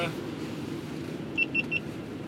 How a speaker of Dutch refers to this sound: Oh, hebben de piept iets. Ja, die camera stopt ermee, denk ik.